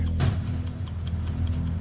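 clock ticking sound effect

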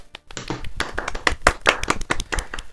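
clapping hands

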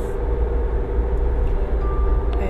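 car interior driving noise

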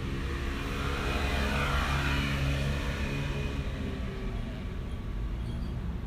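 passing car traffic

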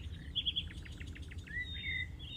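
birds chirping

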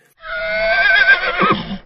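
horse neighing

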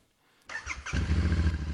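motorcycle engine revving

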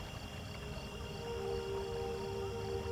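waterfall roaring

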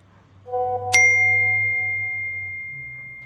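phone message notification ding

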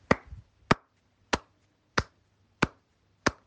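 one person clapping hands

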